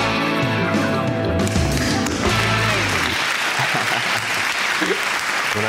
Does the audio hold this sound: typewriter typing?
no